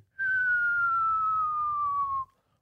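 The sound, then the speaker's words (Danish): A single high, flute-like note from a flute in intro music, held for about two seconds, sliding slowly downward in pitch, with a soft low rumble beneath it and no talking. “Det, det, og det er sådan, den starter, og jeg ved ikke, hvad det er for nogle instrumenter, men der er også en fløjte,”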